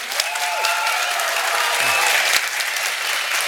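A crowd claps steadily throughout, a dense, continuous wash of applause from many hands at moderate loudness, with faint voices mixed in underneath, as an audience claps to vote for which story they want to hear.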